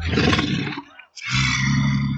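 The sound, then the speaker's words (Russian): Two deep, rough walrus roars follow each other closely, separated by a brief pause; the calls are loud and bellowing, with no talking. “Потом учет моржей.”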